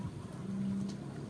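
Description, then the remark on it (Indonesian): A short, low buzzing fart with a steady droning tone lasting under half a second over a faint rumbling background. “Lu kentut tadi sama ya?”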